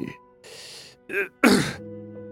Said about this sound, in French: Il est pâle. Il tousse. Il se déplace avec une canne